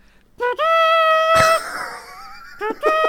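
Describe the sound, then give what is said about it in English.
A horn sounds in a bright, sustained honk, then a second shorter blast follows; the tone rings on and echoes around a reverberant space between the two. “I think I've got I think I've got a horn in here somewhere.”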